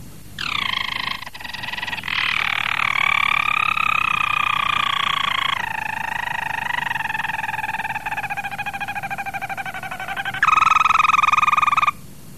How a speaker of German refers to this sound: Das ist der Harzer Roller. Das, das ist das tiefe Rollen vom Harzer Roller. Das hören wir uns jetzt mal ein bisschen an hier.